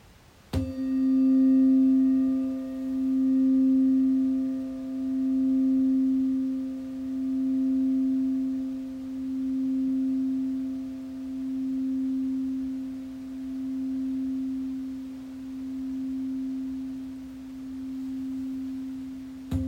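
A Buddhist rin bowl is struck once, ringing with a low, pure tone and faint higher overtones that hum on for nearly twenty seconds, pulsing in slow waves as it gradually fades.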